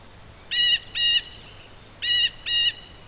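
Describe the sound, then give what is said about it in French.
Four harsh, buzzy calls from Frédéric, a blue jay, arrive in two quick pairs, loud, separated by a short pause, with a faint low hum underneath and no talking. “Frédéric, c'est un jet bleu. Il aime bien venir se reposer à l'ombre de frêne.”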